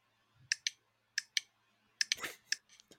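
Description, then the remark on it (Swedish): Crisp metallic clicks from a dog training clicker, mostly in quick double pairs repeated several times with short pauses between, plus a brief rustling burst; no one speaks. “en klicker, eh, som jag förstår det då, ska betinga hunden till att den får godis när den har gjort något rätt”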